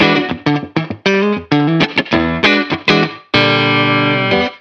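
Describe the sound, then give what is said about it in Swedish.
An electric guitar played on the bridge pickup through heavy distortion and a compressor, with quick choppy phrases and bent notes, finishing on a long sustained ringing bend with a touch of reverb. “Jag är svag för att bända och det ja. låter så.”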